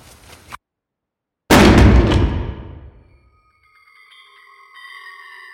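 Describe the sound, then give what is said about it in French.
A door is slammed shut in the visitors' faces with one loud, heavy bang that rings out and fades over about a second, followed by near-quiet with a faint, steady tonal hum. “On fait quoi euh, On vient de se faire claquer la porte au nez, là.”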